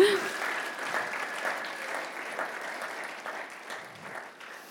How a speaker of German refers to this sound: Das ist ein Applaus ja. wert, oder?